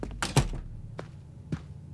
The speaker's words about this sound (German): Hast du die Zimmerkarte? Ja, hier. Ich drehe mich zu dir um, als du hinter uns die Tür schließt.